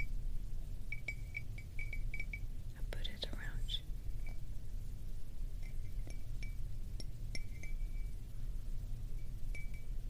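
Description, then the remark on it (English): Gentle fingertip taps on porcelain or ceramic, each giving a short, bright ring, in irregular little bursts over a soft background hiss, quiet, with a brief rustle partway through. “love these sounds. Very gentle. Tapping on porcelain or some type of or some type of um, ceramics.”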